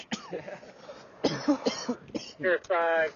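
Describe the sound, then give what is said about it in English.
A person coughs hard several times in quick succession after taking a big hit, the bursts growing raspier and ending in a strained, voiced hacking. “so happy I can cough again.”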